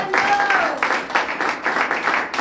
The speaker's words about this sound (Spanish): Denle un aplauso al Señor, hermano. Denle aplauso a Cristo.